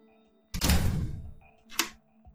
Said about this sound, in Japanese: じゃあ回路を67のロッカーに入れて閉めますかはい。はい。えー、閉めます。